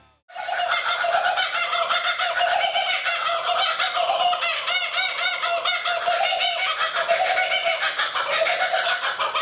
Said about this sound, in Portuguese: Não, e eu queria, por favor, pedir pra Gorete botar aqui o canto de um passarinho chamado Cucaburra.